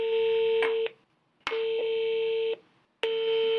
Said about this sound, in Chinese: 本台致电吕梁出入境管理局，但电话始终无人接听。